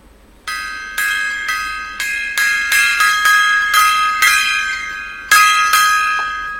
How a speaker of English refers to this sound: The gong. Get it on. Bang gong.